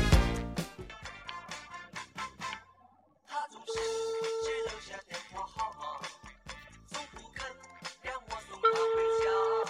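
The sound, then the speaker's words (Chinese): A telephone ringback tone sounds twice as a call to a friend connects, each a steady, mid-pitched hum lasting about a second with a long pause between, playing over busy background music with no one talking. “电话正在接通中。”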